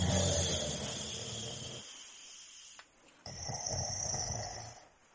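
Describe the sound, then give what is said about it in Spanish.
A woman's husband snores loudly in two long, rasping breaths, the first broad and rumbling, then a brief lull before another harsh, nasal snore. Prominent, no talking. “ronquidos de su esposo”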